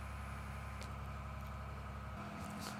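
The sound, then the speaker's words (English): A big truck idles outside a window, a steady low engine rumble with a droning hum that holds throughout and shifts slightly near the end. No one speaks. “it's just a big loud truck outside.”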